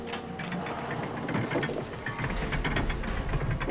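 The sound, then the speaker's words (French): The large gates of a camp grinding open before a hidden group, with a steady, rattling mechanical clatter, like ratcheting gears, sustained and fairly loud throughout, with a low rumble thickening toward the end. No voices. “Là, regardez, la porte Les grandes portes s'ouvrirent devant le groupe dissimulé.”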